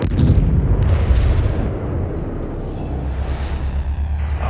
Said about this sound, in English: You should experience lots of explosions with no body parts. Parents should be ready to cover their ears.